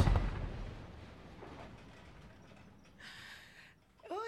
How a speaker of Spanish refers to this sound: Una explosión resuena a lo lejos.